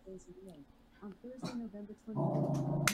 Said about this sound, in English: Okay, this is the loudest, littlest guard dog I've ever seen in my life. What is he growling at? She's growling at. Somebody in the backyard. It's something crawling.